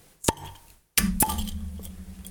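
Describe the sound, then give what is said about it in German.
Two sharp pops a second apart as two cola bottles are opened, each with a brief glassy ring, followed by a steady soft fizzing hiss. Fairly loud, with no talking. “Okay, dann machen wir 3, 2, 1, dann ploppst du und wenn ich das gehört habe, dann ploppst du.”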